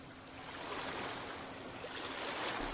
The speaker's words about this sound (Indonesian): Sekarang kita kembali ke tengah laut